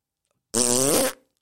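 A single loud fart from a woman, lasting just over half a second, a buzzy, brassy tone with a slightly wavering pitch, set against silence with no talking.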